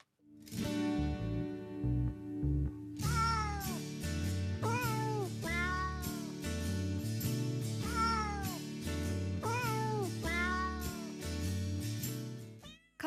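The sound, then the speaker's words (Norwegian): A cat meows repeatedly, its rising and falling cries coming one after another over a steady musical backing, fairly loud throughout. “Er pus flink til å vise følelser og smerte? Hvordan skal man ta vare på en katt?”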